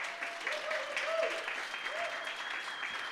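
An audience applauds steadily for about three seconds as a ministry leader steps up to speak, a dense, even wash of clapping with a few faint voices rising and falling underneath.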